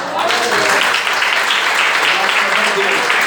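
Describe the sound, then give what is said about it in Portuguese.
An audience applauds steadily after the speaker gives thanks for the opportunity, a dense wash of many hands clapping at a constant loudness throughout, with some murmuring voices mixed underneath. “Quando agradeço a oportunidade, as palmas logo.”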